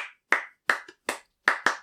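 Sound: hand clapping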